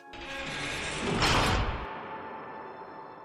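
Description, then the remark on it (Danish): A door swings and slams shut behind a man as he leaves, with a heavy, muffled thud, followed by a short fading rumble amid quiet. No one speaks. “Han smækker døren bag sig.”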